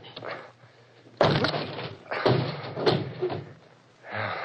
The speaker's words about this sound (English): Can you force the door? Yes, of course, but. Then please do. All right. Here goes.